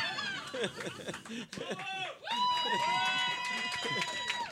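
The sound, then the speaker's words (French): An audience breaks into loud applause mixed with cheering, whoops and laughter, a dense burst of crowd noise that surges, dips briefly, then swells again. “Est-ce qu'ils applaudissent ta description ou ils applaudissent le nabo J'en ai aucune idée.”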